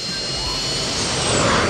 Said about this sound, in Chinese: 经过一路的飞行，这架小型飞机小达已经开得很熟练了。他控制着飞机在空中翻了一个跟头，然后直勾勾地向地面俯冲下去。